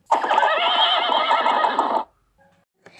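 A pony lets out one loud neigh lasting about two seconds, a wavering, vibrato whinny that cuts off abruptly, followed by a few faint, brief sounds.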